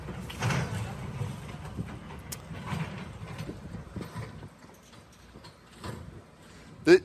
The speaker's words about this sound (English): Let me show you a little video of us driving through Antioch, the city.